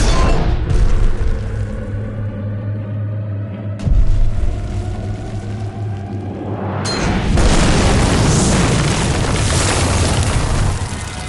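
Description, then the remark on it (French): Heavy cinematic booms and explosions rumble loudly, with a deep blast near four seconds and a rising roar that swells into a sustained, dense explosion around seven seconds, all without speech. “Il y en a des solides, mais moi j'ai surtout vu des explosions quand même.”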